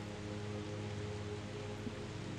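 Steady rain falls in a continuous, even hiss over a region where it rarely rains, a dense wash of noise with a faint low hum underneath and no voices.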